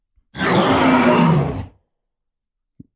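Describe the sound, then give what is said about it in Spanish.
A single loud, deep roar from a big gorilla lasting about a second and a half, rough and growling with a low tonal core, followed by silence and a faint click. “Bueno, es un sonido fuerte, grave, porque el gorila es grandote, ¿no?”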